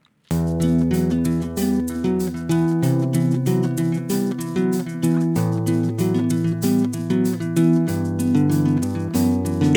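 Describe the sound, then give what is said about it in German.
The instrumental intro of a newly finished self-made song, Freilaufen, in a first rough demo version, with a steady, evenly spaced drum beat over sustained chords and a bass line that shifts notes every couple of seconds, loud, with no singing yet. “Also was ihr jetzt hört, ist Freilaufen in einer ersten Rohfassung.”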